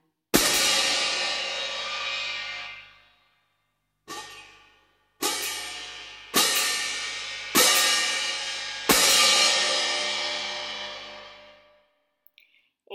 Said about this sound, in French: Ensuite, on a les métaux, le triangle, le gong, les cloches à gogo, les cymbales, les cloches tubulaires. Voilà un extrait des cymbales.